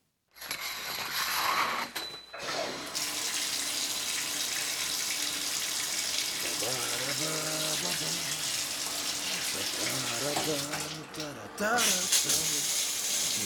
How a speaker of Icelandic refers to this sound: Í næsta broti heyrum við ónemndan söngvara raula í styrtu. Hvað er hann að syngja?